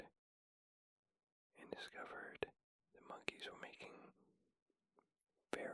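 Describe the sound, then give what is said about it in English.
Soft, breathy monkey chirps, amplified by researchers, come in two whispery bursts about a second long each, then a third begins at the very end, with quiet gaps and faint hiss between them. “And so they deduced they were whispery chirps.”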